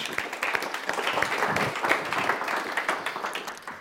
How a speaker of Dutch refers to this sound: Applaus.